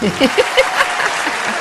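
A short burst of steady, crackling applause from a crowd, dense and fairly loud throughout, with a few faint voiced murmurs or chuckles mixed in at the start.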